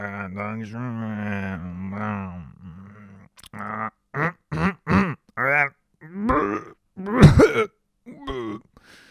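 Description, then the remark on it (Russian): A voice imitates an old man grunting and groaning, starting with a drawn-out strained moan, then a string of short, loud, throaty grunts and clearing noises in a halting rhythm. “Да, звуки деда.”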